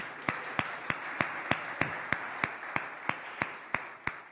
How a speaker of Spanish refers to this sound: Vamos a darle un aplauso al Señor Jesús.